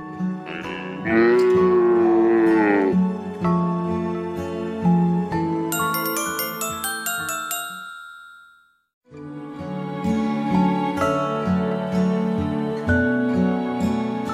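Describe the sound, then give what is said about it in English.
A long, wavering cow moo rises over a bright, busy musical backing, followed by a run of high tinkling chimes, a brief silence, then the music resumes. “Moo, moo, said Cow.”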